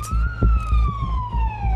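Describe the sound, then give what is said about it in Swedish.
A police car siren wails loudly, its steady tone sliding slowly downward, over a rhythmic low rumble of traffic. No one speaks. The police car carries athlete Oscar Pistorius in its back seat on the way to his bail hearing, with paparazzi running alongside. “I baksätet på en polisbil sitter en av världens mest kända friidrottare.”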